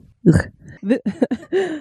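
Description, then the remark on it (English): A rough throat clearing bursts out, followed by several short voiced grunts and hums in quick succession, fairly loud. “excuse me, while I Tell clear my throat.”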